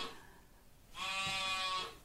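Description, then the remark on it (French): A single lost sheep, alone at night, lets out one drawn-out bleat lasting nearly a second, wavering and nasal, heard clearly against a quiet, faintly hissing background with no talking. “Mais un mouton, c'est important. Il est perdu, il est tout seul dans la nuit.”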